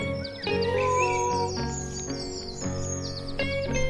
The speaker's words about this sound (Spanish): no te preocupes, es la puerta que rechina. Aquel ruido se volvió a escuchar.